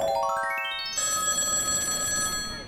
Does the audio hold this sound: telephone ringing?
yes